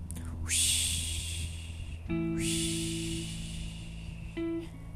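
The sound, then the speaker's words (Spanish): A voice imitates sea waves with two long, breathy, hissing rushes that swell and fade, each ending in a short hum, with no words spoken. “Sigue caminando Josué con su pollito y suena el mar de nuevo.”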